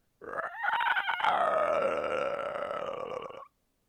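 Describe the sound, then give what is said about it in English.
A person imitates a clicker monster's sound: rapid throaty clicks roll into a long, rasping, gurgling croak, loud, lasting about three seconds before cutting off. “They make the I can I can do their sound pretty well.”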